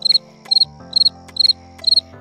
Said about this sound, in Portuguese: Outro exemplo bem interessante, pessoal, são aqueles vídeos em que o falante esquece o que vai dizer e fica em silêncio, ou faz o famoso som do grilo.